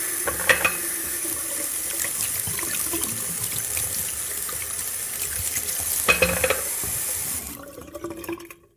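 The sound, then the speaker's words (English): A bathroom sink faucet runs in a steady rush of water while hands wash beneath it, with a few splashy bursts, until the tap shuts off near the end. “And now I need to wash my hands.”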